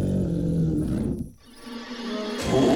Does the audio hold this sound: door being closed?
no